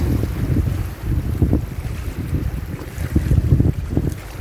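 Steady wind buffets the microphone with a low, rumbling roar while water washes and laps, a continuous outdoor ambience at the sea with no voices.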